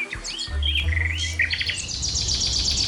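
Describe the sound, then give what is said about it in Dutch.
A finch hidden among tree branches sings a lively trilling song, rapid high chirps and rolling trills running one after another in sustained series, each ending with a flourish, clear over a steady low rumble in the background. “Verborgen tussen de takken gaf een vink een reeks aangehouden trillers ten beste, die die telkens afronden met een zwierige uithaal.”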